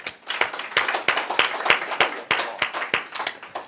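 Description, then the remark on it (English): An audience applauds the panelists at the close of an American Security Project panel discussion, a steady crackle of many hands clapping at once with sharper individual claps poking through, moderately loud and sustained without any talking. “and, and thanks for you all for coming, and join me in a round of applause.”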